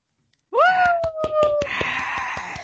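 Steady rhythmic hand clapping, a sharp clap every fraction of a second, begins with a long wailing vocal cry and continues under a rising burst of loud cheering.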